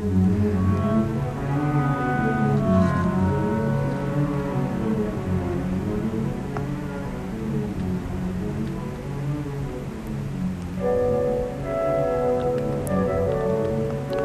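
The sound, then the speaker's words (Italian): Orchestral strings play a repeating figure that rises and falls in steady waves over sustained low notes, the music full and continuous, shifting to a brighter held chord near the end. “C'è un'ostinazione però in queste onde di archi.”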